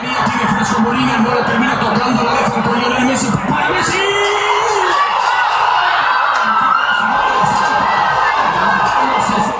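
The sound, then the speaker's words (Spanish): A large crowd roars throughout: distant Argentine fans from Patagonia cheer an Argentina goal scored by Leo past goalkeeper Ochoa, and about five seconds later nearer voices break into disappointed groans and shouts, the whole scene loud and dense with overlapping voices. “Si escuchan con atención, notarán un desfase de más o menos 5 segundos entre unos gritos lejanos y los lamentos que se escuchan más cerca.”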